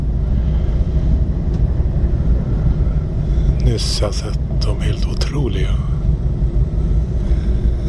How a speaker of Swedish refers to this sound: På tåget mot Innsbruck.